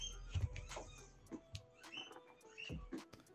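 A dog plays with a toy, producing scattered short squeaks, chirpy high-pitched noises and soft thumps in an irregular rhythm, fairly quiet, with no one talking.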